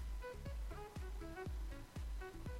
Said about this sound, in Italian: L'acqua deve stare un dito sotto. Quindi io prima ne ho messa troppa, la vado a togliere un pochettino.